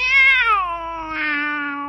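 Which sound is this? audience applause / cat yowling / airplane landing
cat yowling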